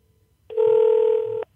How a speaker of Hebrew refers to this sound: אה, אנחנו אה. שומעים את החיוג. כן, אוקיי, בוא ננסה.